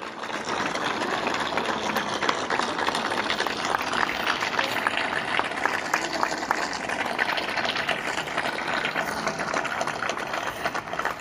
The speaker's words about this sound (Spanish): Así que muchísimas gracias de corazón y muchísimas gracias a todos los bomberos que nos están acompañando que ellos son el símbolo del sacrificio, el valor y la abnegación. Así que eh, creo que merecen un aplauso muy especial nuestros bomberos.